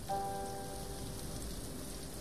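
Steady rain falling in a dense, even hiss with low rumbling texture, with a brief faint tonal ring near the start; no voices are present.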